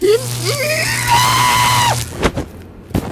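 A wavering, high-pitched scream-like cry over a low electrical hum, then sharp electric shock bangs: two quick loud cracks followed by another a moment later.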